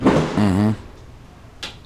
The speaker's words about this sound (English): somebody firing off fireworks outside. Pay no attention. It's not gunshots.